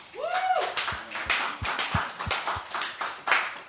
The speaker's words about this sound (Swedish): Vi har fått en gäst här, nämligen ingen mindre än Leif GW Persson. En applåd!